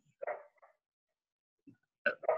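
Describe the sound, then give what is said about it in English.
A dog barks faintly in the background, a short bark and a softer yip, then after a pause a quick pair of barks. The sound is distant and quiet, with no talking. “It's not coming through that loudly. We can hardly hear the dog.”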